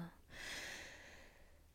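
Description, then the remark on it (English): One long, deep inhale during a guided breathing exercise, a steady airy rush of breath drawn in for well over a second, soft and breathy with no talking. “I'm going to guide us through 3 deep breaths right now. So we're going to do one inhale.”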